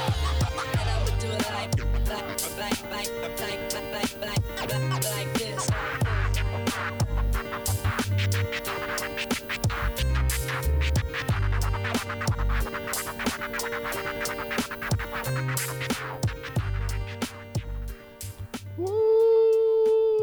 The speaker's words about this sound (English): my goodness, oh my goodness, man, I haven't heard an artist put some scratching in their music in a long time. That is so refreshing to hear that.